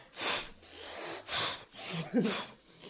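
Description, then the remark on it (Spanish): A person imitates sneezing with several breathy, hissing bursts in quick succession, moderately loud, with no other talking. “Esos estornudos, literal, se hacían así como.”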